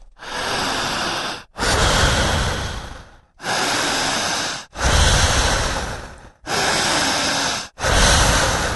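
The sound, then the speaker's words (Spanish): Loud, forceful breaths drawn in and pushed out only through the mouth in a steady rhythm, about six long rushing breaths separated by brief pauses, with no talking. “Al respirar en esta mecánica rara, siga respirando por la boca.”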